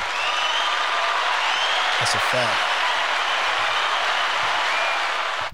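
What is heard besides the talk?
applause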